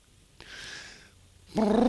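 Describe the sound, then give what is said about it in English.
A person imitates an elephant trumpet: a thin, steady whistling tone first, then a sudden loud, buzzy, harmonic blast from the voice. No words are spoken. “As I was about to say, it was never an elephant there, but he just uh, made a noise like.”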